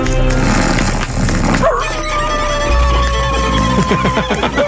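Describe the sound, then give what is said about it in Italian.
A dog howls in long, wavering tones over scratchy, out-of-tune violin sawing. The din is loud, with no talking. “un frastuono generato da un cane che suona un violino malamente mentre urla.”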